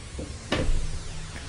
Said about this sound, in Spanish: acaba de abrir la puerta.